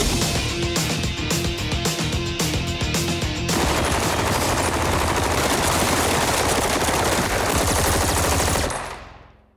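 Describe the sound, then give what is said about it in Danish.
Loud, rapid bursts of automatic gunfire from rifles during a film shooting scene in a forest, in a steady rhythm, then merging into a dense, continuous roar of shooting that cuts off abruptly near the end. No voices are heard. “Det var øh, fantastisk øh, at stå ude i skoven med den skydescene der og se de her drenge øh, med, med, med, med de der geværer der.”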